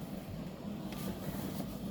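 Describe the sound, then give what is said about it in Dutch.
A low, steady roar of sea waves breaking on the shore, a continuous rumbling wash with faint surges, recorded while sitting by the sea behind a low wall in a breeze. Fairly quiet, with no voices. “Maar de zee mag het geluid wel beïnvloeden, want ik zit namelijk aan de zee. En ik hoop dat jullie iets horen van de golven,”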